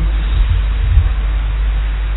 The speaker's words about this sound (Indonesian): Oke, okay. uh, eh, ya meskipun hujan deras tidak apa-apa ya kita tetap ngaji aja. Semoga suara saya masih terdengar meskipun kalah sama suaranya hujan yang di belakang